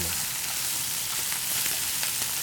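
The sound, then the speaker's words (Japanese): Steady, dense sizzling of chili and kimchi stir-frying in hot oil in a frying pan to bring out the toasty aroma of the chili, a continuous crackling hiss with occasional sharper pops, fairly loud and without any talking. “これも唐辛子の香ばしさをここでしっかり炒めることで出してい”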